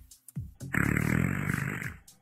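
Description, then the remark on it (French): A loud fart sound effect with randomized pitch: a couple of short sputters, then one drawn-out, buzzy blast lasting over a second, rough and low-pitched, with no one talking. “Donc ça, c'est un son de P aléatoire sur la, le pitch. Donc euh, parfois il est aigu, parfois il est plus grave.”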